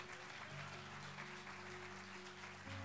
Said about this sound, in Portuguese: Dê um aplauso bem forte ao Senhor.